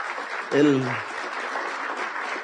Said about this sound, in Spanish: ¿Quiénes son invitados acá que están por primera vez en un seminario de Amway? Bueno, un aplauso fuerte para ustedes.